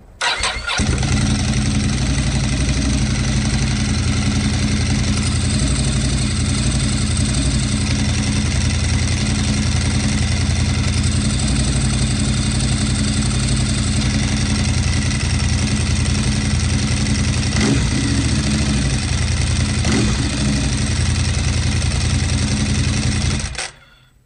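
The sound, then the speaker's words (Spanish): A motorcycle engine rumbles loudly, idling steadily for about twenty seconds with a couple of brief revs near the end before cutting off. “arranca y dale a la pandereta que nos vamos.”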